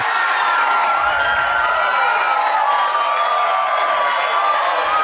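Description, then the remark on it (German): A played-in applause sound effect: a loud, steady wash of crowd cheering and clapping with whoops and shouts, holding at an even level for about five seconds with no one talking over it. “Eigentlich müsste jetzt wieder ein Applaus das. kommen.”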